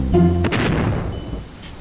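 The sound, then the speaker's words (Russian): A corvette's bow cannon fires a single loud, booming warning shot across a yacht's course that rolls off into a rumbling decay, preceded by a brief sustained tonal sound, with a second fainter burst near the end. “Носовое орудие. Товсь! Заряжай! «Предупредительный выстрел! По курсу яхты!»”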